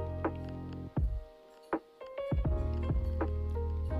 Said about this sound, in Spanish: vamos a tomarnos un cafelito, escuchar. Bueno, no sé si escucháis los hielos. ¿Vas a escuchar mi sorbo mirar?